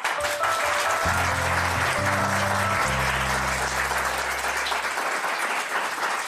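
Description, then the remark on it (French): Dense, steady applause from the audience of the French TV show Ça commence aujourd'hui welcomes the guests, loud and continuous, with a low sustained musical chord humming underneath for several seconds before fading. “Jamais été applaudi.”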